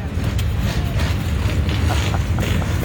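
Hundreds of motorcycle engines fire up together at Polo Park in 2019 after a cannon goes off, rumbling in a dense, continuous low roar, loud and steady throughout, with faint crackles and revs poking through and no one talking.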